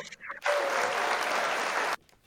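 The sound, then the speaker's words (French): A canned applause sound effect of crowd clapping, played as a test during a broadcast, starts abruptly after a brief murmur, holds at a steady, dense level for about a second and a half, then cuts off sharply. “Ça, c'est des applaudissements. Je voulais voir si ça marchait, mais ça marche.”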